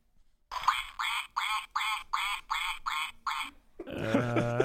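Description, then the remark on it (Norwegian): A toy duck belonging to the speaker's daughter quacks eight times in a steady, even rhythm, each squawk loud, followed by a brief burst of voices and laughter. “And? Det er en fugl av noe slag, altså.”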